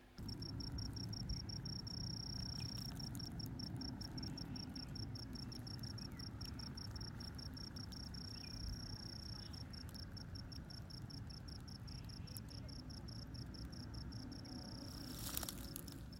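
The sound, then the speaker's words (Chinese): Insects chirp, the first insect sounds of the year, recorded on the day of Jingzhe, in a steady, rapid high-pitched pulsing trill that runs continuously over a low rumbling background, with no voices present. “然后我们录到了今年的第一阵虫蝇”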